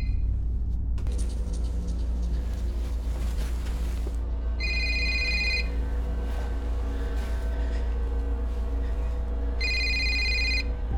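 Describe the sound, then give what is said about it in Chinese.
A phone rings twice in bright, buzzing bursts, each about a second long and separated by a pause, over a steady low rumble with faint murmuring voices underneath, as a man calls his wife; the call goes unanswered. “于是小白就给老婆阿珍拨了个电话。”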